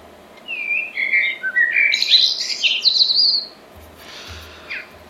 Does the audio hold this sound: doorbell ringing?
no